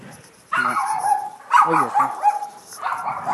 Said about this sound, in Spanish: Dios mío, un perro patada, Lola. Vámonos, vámonos.